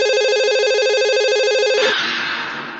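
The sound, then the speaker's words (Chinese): An old telephone rings with a rapid, trilling electronic warble lasting nearly two seconds, then cuts off into a brief burst of noisy clatter that fades away. No one speaks. “下面我为你讲一个午夜电话的故事。”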